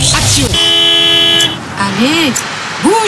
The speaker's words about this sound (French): Elle voulait juste qu'il dégage sa voiture parce qu'elle était en retard pour emmener son fils à l'école. Tu sais ce que c'est un klaxon de courtoisie, jeune homme je suis sûr que c'est ce que ta mère voulait faire.